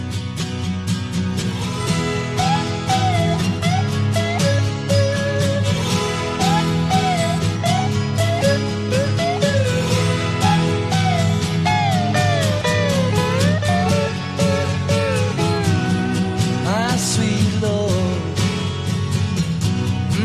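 A pop song recording played during a court trial, at full volume, with a singing voice carrying the melody over a dense band backing of guitars, bass and drums, continuous throughout with no talking.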